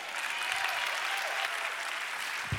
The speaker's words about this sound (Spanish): Dale un aplauso ahora de verdad.